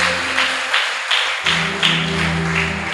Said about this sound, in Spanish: Bríndele un fuerte aplauso al Rey.